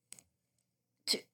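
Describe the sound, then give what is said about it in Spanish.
A single sneeze: a brief, soft catch of breath, a pause, then one sharp, loud, hissy burst. No one speaks. “Salud.”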